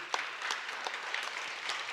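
Steady audience applause, a dense crackle of many hands clapping at once with a few sharper individual claps standing out, fairly even in loudness throughout and with no voices.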